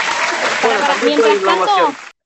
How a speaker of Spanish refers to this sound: No, esperen, esperen, puse la ovación, puse la ovación